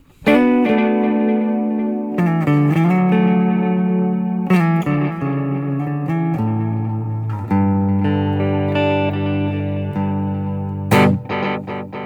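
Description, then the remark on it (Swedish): An electric guitar played through a stereo delay pedal, sustained chords and notes ringing out with wide, echoing repeats that blur into a lush, reverb-like wash. No one speaks. “Och då får du någonting som, det vi hör lite grann nu, ett väldigt coolt stereoljud och stereobredd.”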